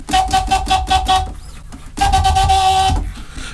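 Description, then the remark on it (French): A long, horn-like held tone from a vinyl record is chopped by a DJ using only the crossfader, with no manipulation of the record itself, into six or seven quick rhythmic stabs. It is then let through as one longer sustained burst before cutting out. No one speaks. “Et si tu utilises l'interrupteur, tu peux le découper.”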